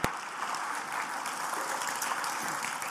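crowd, audience applauding

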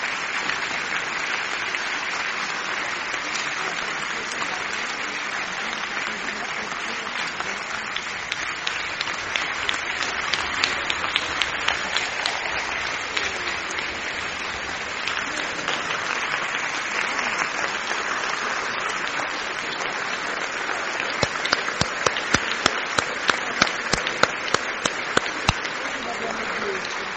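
crowd, theatre audience applause

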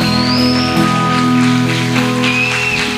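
crowd, audience applause

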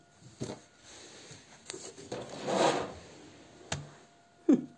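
household object, window being closed

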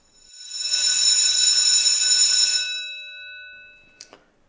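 signal or alarm, school bell ringing

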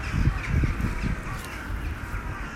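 bird, birds calling outside

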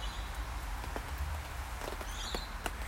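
nature, rain falling

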